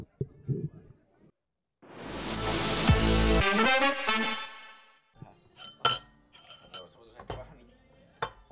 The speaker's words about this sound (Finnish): seuraava klippi tästä niin kuuluu vähän astioiden kilinä. Me saatetaan olla aamupalalla tai jos mä oon täysin väärässä, niin sitten ei olla.